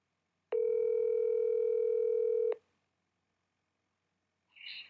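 A telephone dial tone hums steadily and loudly for about two seconds as the speaker tries calling someone back after a dropped call, starting and stopping abruptly, followed by silence and a short, softer electronic chirp at the end. No one speaks.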